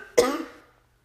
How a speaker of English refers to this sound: oh no. She's got the coughing fit.